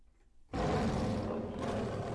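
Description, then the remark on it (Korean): After a brief quiet moment, a loud tiger roar sounds from outside a door and holds for well over a second, deep and rumbling with a rough, growling texture. “그리고 며칠 뒤 다시 또 문 밖에서 호랑이 소리가 들렸어요.”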